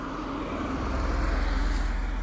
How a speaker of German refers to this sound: halte kurz an, kommt dann noch ein Auto.